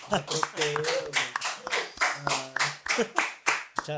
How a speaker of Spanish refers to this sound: Está sabadazo, tenemos aplausos y todo